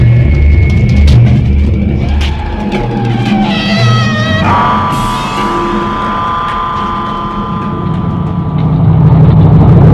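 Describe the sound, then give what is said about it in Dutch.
A truck engine runs steadily throughout, a loud low rumble with a high mechanical whine that rises and settles partway through. No one speaks. “Mooi, ik zet de motor af”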